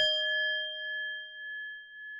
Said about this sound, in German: Sie nimmt nun dieses kleine Holzstück und schlägt damit auf die Klangschale. Ah, da kommt dieses Geräusch her, denn es ertönt wieder ein lautes.